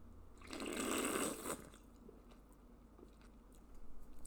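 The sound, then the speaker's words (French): A loud, wet slurp of orange-mango flavored sparkling water swished in the mouth for about a second, then faint crackling fizz and small wet clicks, with no talking. “En fait, c'est une boisson, c'est une, eau, gazeuse avec du, une faveur, une flavor, comme on dit.”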